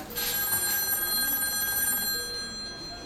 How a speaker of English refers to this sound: And then the phone would ring again.